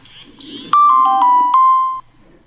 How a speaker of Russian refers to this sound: Пришло смс-сообщение с кодом подтверждения.